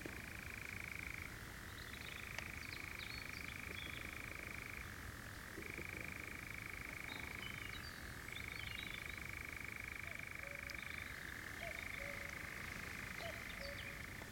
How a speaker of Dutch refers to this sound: Oh, hier, hoor je dat? Ja, komt hij weer. Eigenlijk worden we omgeven door nachtzwaluwen ineens. Mooi hè? Ja, we zitten echt midden in, midden in hun leefgebied nu.